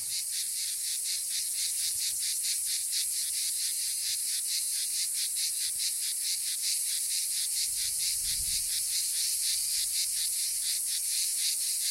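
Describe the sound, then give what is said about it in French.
A dense chorus of male cicadas (Cicada orni, Cicada traatra and Iristas plebeius) singing together, each male setting off its neighbour, a steady high-pitched buzzing with a fast, even pulsing rhythm that fills the whole recording without pause. No voices are heard. “Ça fait un effet boule de neige, et à la fin, il y a tout un groupe qui chante ensemble. C'est oh, Cicada orni, Cicada traatra et l'Iristas plebeius.”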